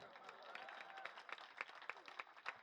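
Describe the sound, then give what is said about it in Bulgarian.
A crowd applauds in a dense, steady wash of clapping, with individual sharper claps popping out irregularly above the continuous patter throughout. “И хората ръкопляскат пак.”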